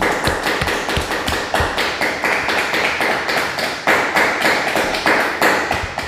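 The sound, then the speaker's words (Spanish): Audience applause at a Shabbat night ministry gathering, clapping for the Eternal (God): a steady, fairly loud stretch of many hands clapping, the sharp claps packed densely and keeping an even, slightly rhythmic pulse throughout, with no voices over it. “Que el Eterno me los bendiga un fuerte aplauso al Eterno una vez más.”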